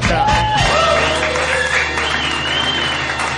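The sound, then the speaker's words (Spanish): A crowd breaks into loud, sustained applause for the winner of a points game, with scattered cheers and whoops rising over the dense clapping throughout. “Vamos a ver, un, aplauso, un aplauso para”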